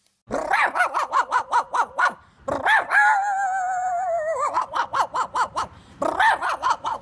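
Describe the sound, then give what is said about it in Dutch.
A man, a YouTube performer, imitates a dog, letting out rapid, rhythmic barks broken by a long drawn-out growling whine, then resuming the quick barking bursts, loud. “Inderdaad, geen hond, maar wel zijn beste vriend, een mens.”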